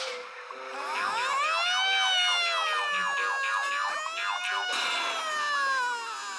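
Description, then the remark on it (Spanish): A voice imitates a police patrol car siren, wailing loudly and continuously for about six seconds with a slowly rising and falling pitch. “Porque las sirenas de las patrullas que pueden romper los tímpanos. Son bien escandalosas y suenan así.”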